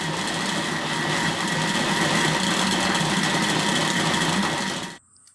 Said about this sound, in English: Keep an ear out for a slight thud sound as the butter becomes solid. Now it's going to get even louder. And if you listen closely, you can hear a rattle of the lid of the mixer as we start to get proper butter forming.